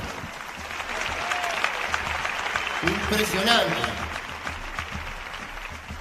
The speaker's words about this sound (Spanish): aplauso.